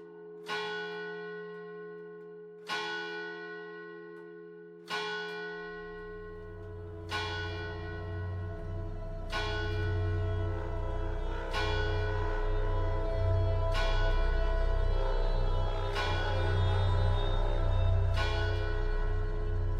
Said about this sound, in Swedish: Det sista jag hör är klockorna ringa.